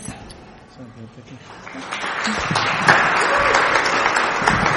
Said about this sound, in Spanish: Ese, ese aplauso es para el Señor, por supuesto.